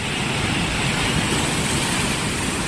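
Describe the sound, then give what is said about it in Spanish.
A steady, loud roar of Pacific Ocean surf at Puerto de la Libertad, El Salvador, fills the scene, a dense continuous rush of waves against the shore's large rocks with no separate crashes standing out and no voices. “Las olas, buscadas por los surfistas, mueven con fuerza las grandes rocas del litoral.”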